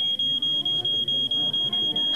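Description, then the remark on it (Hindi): A smoke alarm, set off by smoke from a puja plate during a housewarming ceremony, sounds a continuous shrill high-pitched tone, broken by brief regular dips about every quarter second, loud, with faint low background rumble and no talking. “गृह प्रवेश की रस्म शुरू हुई जैसे ही सभी लोग अंदर आए अचानक स्मोक अलार्म बजा”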